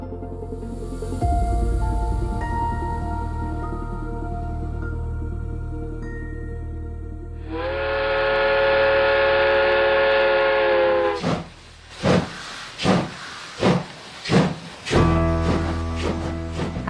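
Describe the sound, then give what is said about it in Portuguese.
A short train-themed jingle, the 'trem da vida' theme: soft tones lead into a loud, sustained steam-whistle blast, followed by a rhythmic series of chugging pulses like a locomotive pulling away. “deixa a gente com esse barulhinho bom do hino do trem da vida que te convida para embarcar com a gente e saborear uma jornada para a alma emocionante e transformadora de retorno à nossa essência.”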